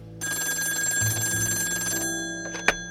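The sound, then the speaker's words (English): A telephone bell rings late at night in one sustained, rattling metallic burst of about two seconds, then its hum lingers and fades before a sharp click near the end. No voices. “It was late when the dame called me.”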